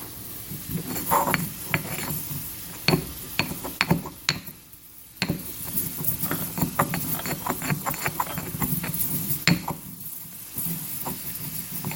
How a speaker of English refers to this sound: I don't know if you can actually hear that, but I'm going to put the phone closer to the mortar and pestle